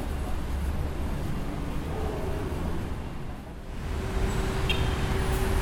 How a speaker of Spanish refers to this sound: De todos modos, noten que hay un fondo continuo de, alrededor de 60 decibeles si uno está en la, calle, ¿no? al costado de las principales avenidas.